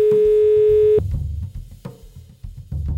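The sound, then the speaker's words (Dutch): A telephone ringing tone while calling an expert who is in Spain: a steady, mid-pitched electronic tone holds for about a second, then a fainter, shorter tone follows over a low, busy rumbling background. “Ik bel hem.”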